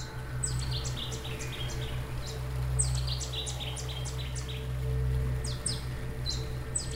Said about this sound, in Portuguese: Apenas um rouxinol pousado na ponte, cantando em nossa direção.